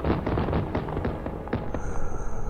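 Guns firing in a loud, continuous barrage of sharp, overlapping bangs and booms, with a thin high whine rising near the end; no voices.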